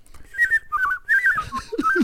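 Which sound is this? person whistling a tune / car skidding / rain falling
person whistling a tune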